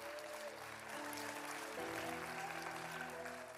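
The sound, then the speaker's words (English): Steady, dense applause from a church audience, clapping for those who have just decided to become Christians, fills the whole stretch, with sustained keyboard or organ chords held underneath that shift to a new chord partway through. “Clap for everybody that made that decision.”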